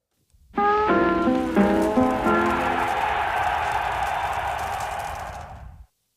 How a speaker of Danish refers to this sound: Øh, og vi, med, øh, vi tager lige en lille skiller.